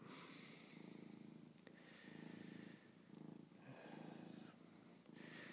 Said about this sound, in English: What can you do about a cat that purrs like that?